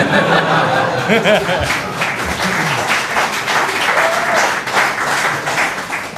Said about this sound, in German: Schön, dass so viel Applaus kommt, ich freue mich.